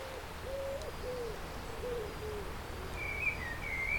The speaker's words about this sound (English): Can you hear the birds singing?